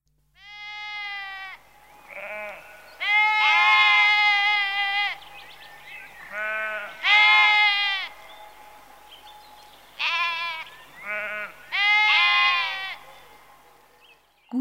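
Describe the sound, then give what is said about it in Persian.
A sheep on a farm bleats repeatedly, a series of about eight wavering, nasal calls of varying length with short pauses between them, fairly loud, with no one talking. “گوسفندا توی مزرعه خیلی باحالن همینطوری دور هم جمع میشن و هی علف میخورن گوسفندا چی میگن بچه ها؟”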